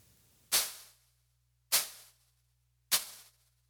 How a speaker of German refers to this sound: Und mit der Tightness kann man natürlich dafür regeln, wie lange das Ganze jetzt nachregelt. Auch da können wir mal kurz dran rumspielen. Nehmen wir mal Snare 2.